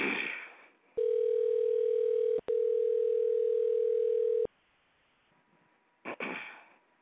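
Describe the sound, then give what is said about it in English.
A loud, steady telephone dial tone hums for about three and a half seconds while calling a guest, broken once by a brief click-like gap, with short bursts of noise before and after. “We heard the ring dial, but let's try again.”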